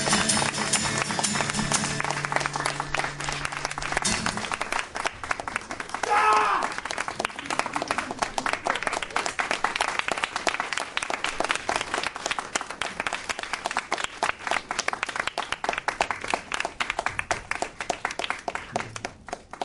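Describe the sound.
A crowd applauds steadily after a musical ending at a live concert, dense clapping filling the space for about fifteen seconds, with a brief voice or instrument trailing off at the start.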